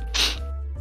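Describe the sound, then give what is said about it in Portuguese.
A single sharp sneeze bursts out, a quick explosive hiss that fades fast into a low steady background hum. “Saúde.”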